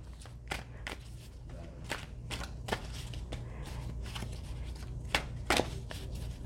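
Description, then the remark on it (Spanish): A deck of cards being shuffled again, a run of crisp, irregular snaps and riffling flicks over a low, steady background hum, with no one speaking. “Voy a barajar nuevamente.”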